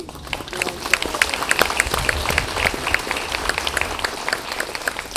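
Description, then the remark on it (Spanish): An audience applauds together for those celebrating birthdays, a dense, steady patter of many hands clapping at once for about five seconds, with occasional sharper individual claps standing out. “También queremos saber si hay cumpleaños para darle un aplauso.”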